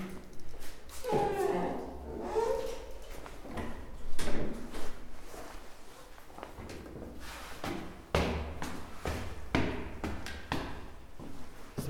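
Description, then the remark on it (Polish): A second door is opened with a clunk and rattle on the way into a stairwell, followed by scattered thuds and taps, with brief talking in the background. “I drugie drzwi.”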